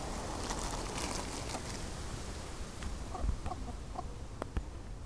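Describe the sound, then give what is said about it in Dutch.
Chickens cluck intermittently in the background of a garden over a steady outdoor hiss, with a few short, slightly louder clucks toward the end. “je hoort dat de kippen helpen op de achtergrond.”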